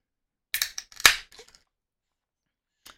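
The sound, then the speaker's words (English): A can of hazy double IPA from a local brewery cracks open: a short metallic crackle, then a sharp pop with a brief fizzing hiss and a few small clicks, followed by a faint tap after a pause. No one speaks. “So let me crack it real quick and take a sip.”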